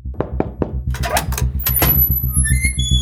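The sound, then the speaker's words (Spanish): A few quick knocks on a small red secret door, then a rush of rattling noise as the door creaks open, ending in thin high squeaks over a steady low thumping pulse. “La, la puerta se ha abierto, ¿qué hago?”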